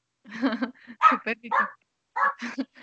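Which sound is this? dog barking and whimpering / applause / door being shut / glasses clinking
dog barking and whimpering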